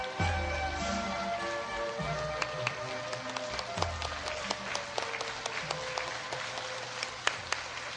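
A crowd at a gathering claps steadily in sustained, dense applause welcoming a master to the venue, with sharp individual claps popping out above a continuous wash of hands for several seconds, with low tonal background sound underneath.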